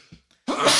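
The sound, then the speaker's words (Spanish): A quick sharp inhale, then one sudden loud, breathy sneeze that bursts out and carries to the end. Nobody is talking. “¡Salud! Ve nomás.”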